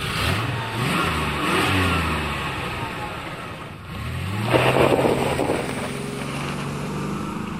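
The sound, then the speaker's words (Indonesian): A car engine starts and revs repeatedly, its pitch climbing and dropping in a few surges, then dipping briefly before roaring up again into a sustained idle-rev. “tutup pintu mas bro starter”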